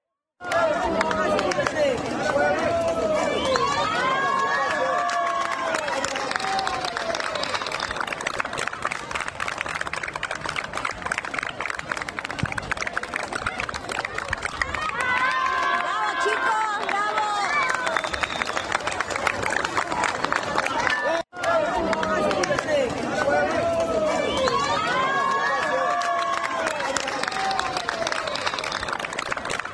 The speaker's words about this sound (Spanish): Y vean esta imagen en Ica cuando entra la policía en la noche entre aplausos de la población.